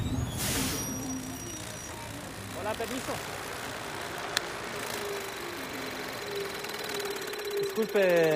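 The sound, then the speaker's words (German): A homemade lawn mower driven by a very old washing machine motor whirs steadily and loudly as a man mows a large meadow in Matanzas, 80 km from Havana. Its buzzing hum runs throughout while the man briefly speaks over it. “Das ist ein Rasenmäher, der mir die Arbeit leichter macht.”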